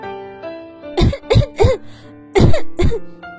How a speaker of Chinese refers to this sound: 我最小的姐姐忍不住咳嗽起来。